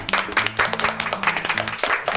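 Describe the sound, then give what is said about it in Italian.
An audience applauds, a dense, steady patter of many hands clapping for the whole two seconds, with a low tonal hum running beneath the clapping. “Un applauso”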